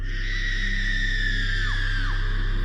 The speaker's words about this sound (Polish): Nie krzycz. Nie jesteś straszny, jesteś śmieszny.